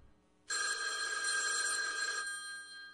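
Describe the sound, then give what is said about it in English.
A telephone rings with one loud, sustained bright electronic trill lasting under two seconds, clear, then cuts off into quiet. No voices are heard. “It means you're another call closer to losing your home to foreclosure.”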